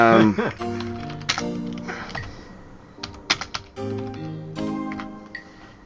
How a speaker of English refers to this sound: oh my god, my typing.